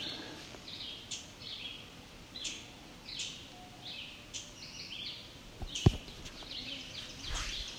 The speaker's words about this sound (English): There's a ovenbird again.